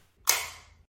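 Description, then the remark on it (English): A NutriSense glucose biosensor applicator fires on the back of the arm with a single sharp click, its bright snap fading over about half a second. Nothing else is heard, no voices. “That was the sound of a NutriSense biosensor.”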